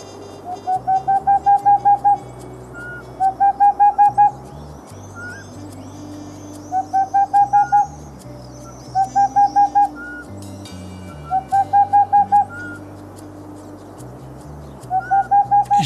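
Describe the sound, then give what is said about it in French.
A Tengmalm's owl and a Eurasian pygmy owl call together: short bursts of rapid, even hoots repeat every few seconds, with soft whistled notes threading between them over a quiet night-forest background. “je vous propose quand même, parce qu'on est têtu, et que je suis sûr que ça va marcher, d'entendre la chevêchette et la tegmalm en même temps.”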